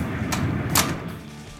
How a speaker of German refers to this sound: hob die Hand und die Tür schlug ohne eine Berührung hinter Kay zu